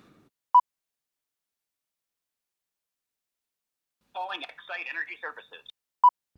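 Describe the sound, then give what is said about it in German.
A phone call in progress: a short electronic beep, a long pause, then a brief tinny voice as if through a handset, followed by another single beep. “Einfach, einfach mal anrufen.”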